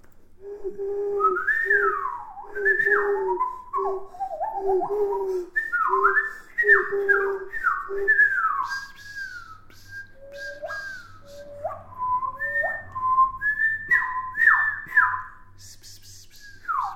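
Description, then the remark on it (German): A person whistles a lively, bouncy jingle, with quick sliding notes and short phrases running continuously, joined by a second whistler partway through and faint background hiss. “Dann machen wir mal einen Pfeif-Jingle, weil wir ähm, gerade pfeifen sind.”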